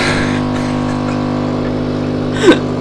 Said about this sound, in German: Moment, jetzt geht kurz mal die Kaffeemaschine hier aus.